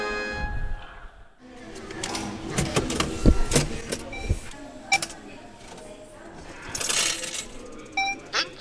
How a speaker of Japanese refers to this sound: 今週放送したのは払い戻しの音でしたいい音でしたねチャリンしか聞こえなかったんですよ そこははいガサってこうバサバサバサバサっていうのがシャカシャカシャカシャカチャリンっていう感じ